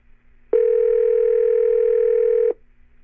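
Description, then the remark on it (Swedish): A single steady telephone ringback tone sounds for about two seconds while calling a woman, loud, starting and stopping abruptly against a quiet background with no voices. “Ja, men du, vi ringer upp henne nu på en gång då.”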